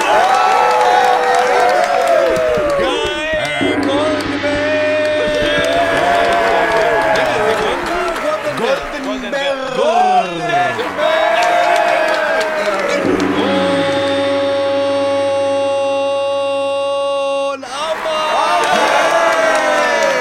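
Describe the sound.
An audience at a metal quiz show claps and cheers loudly and steadily for about twenty seconds as a contestant is introduced, with whoops and shouting voices, while two sustained musical stings sound over the crowd noise partway through.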